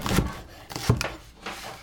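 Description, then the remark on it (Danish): A knife chops garlic, about two teaspoons' worth, on a cutting board in a few uneven taps, each a short dull knock against the wood, with quiet kitchen background in between. “Hvidløg. Ja, det er øh, to teskefulde, når de er hakket.”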